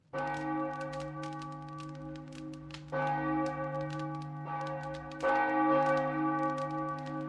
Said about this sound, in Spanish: Al inclinar su cabeza hacia atrás, su mirada cayó sobre una campana y con gran asombro y miedo sorpresivo notó que había comenzado a oscilar se movía tan suavemente que escasamente emitía un sonido. Pero de pronto empezó a sonar ruidosamente